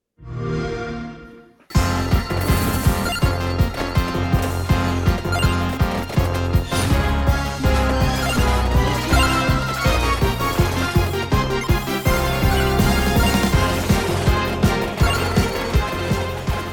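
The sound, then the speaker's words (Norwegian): Energetic soundtrack music from the video game Vampire Survivors, on Xbox Game Pass for PC and console: a short tonal intro, then a loud, dense arrangement with a driving steady beat and a stepping bassline that plays continuously without any voices. “Det vi hører lyden til, er Vampire Survivors, som eh, ligger på Xbox eh, GamePass nå, både på PC mm.”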